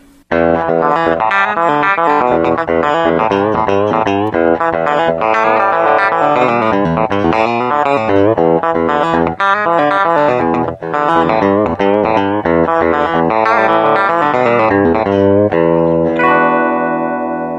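A funky electric guitar riff called the funky butt, played with effects as an example, quick notes flowing through hammer-ons and pull-offs in a steady, bouncy rhythm, played loud and alone before ending on a ringing held chord.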